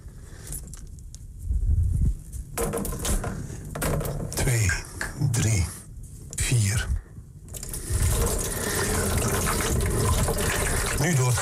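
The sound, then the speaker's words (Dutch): Photographic developer is poured over a photographic plate in a steady stream with splashing and trickling, broken by brief pauses, then running continuously toward the end. A voice murmurs faintly beneath it at moments. “Dan nou hebben we hier de ontwikkelaar klaarstaan.”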